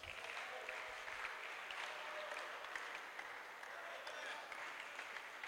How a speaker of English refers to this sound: Wow, are you clapping?